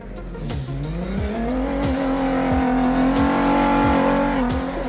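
An off-road rally car engine roars and revs loudly during the 2022 Dakar Rally, pitch climbing and holding high, with repeated sharp pops and gear shifts punctuating the sustained, aggressive drone.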